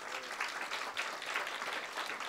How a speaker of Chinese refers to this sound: 拍手把荣耀归给主，好不好？